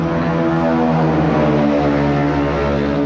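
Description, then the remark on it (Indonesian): A motorcycle passing by drones loudly and steadily, its buzzing harmonic hum filling the whole moment with no one talking. “sorry guys ada mobil lewat eh motor”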